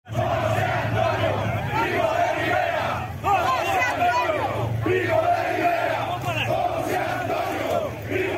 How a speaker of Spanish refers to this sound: Exaltan al fascismo, proclaman lemas franquistas.